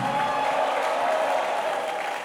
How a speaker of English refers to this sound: Come on, clap if you're blessed today. Come on, clap, come on, clap your hands now. Come on, clap your hands now.